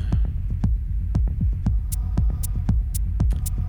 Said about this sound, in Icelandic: eins og heyrist vindurinn suðandi fyrir aftan